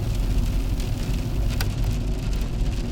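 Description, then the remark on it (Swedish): Heavy rain drums steadily on a car's roof and windows, a dense constant patter over a low rumbling hum, with a few sharper drops hitting. “Nu har det börjat regna så jäkla mycket här så jag tror faktiskt att jag ska parkera bilen här efter vägkanten”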